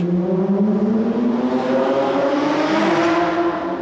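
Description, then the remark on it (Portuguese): A car engine revs loudly and continuously, its droning pitch climbing and dipping across a few seconds, with no voices over it. “Oh, oh glória que esse motor não funda, né?”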